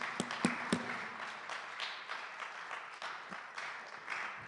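An audience breaks into applause, a dense patter of many hands clapping steadily at moderate volume, with a few sharp, louder claps standing out near the start.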